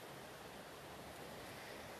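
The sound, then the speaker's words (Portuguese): A steady, even rush of flowing water outdoors under a blue sky, a soft continuous hiss with no breaks, heard alone at a fairly low level with a faint touch of wind. “O vento tava nas minhas costas, a água que passando”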